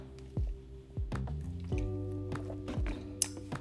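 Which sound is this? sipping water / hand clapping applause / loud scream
sipping water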